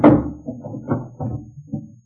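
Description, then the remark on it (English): A wooden bureau drawer is pulled open, with a string of hollow knocks and rattling thunks as it slides and jolts out, fading at the end; no one speaks. “Let's try the next drawer, all right?”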